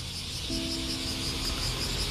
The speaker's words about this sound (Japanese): セミがね結構もう制御不能になってますねうん、もう僕の方に突進してこようとするセミがいたりもうなんかこの地面でビビビビビってこう瀕死のセミがいたり、うん、そろそろセミの寿命も切り出す頃っていうんですかね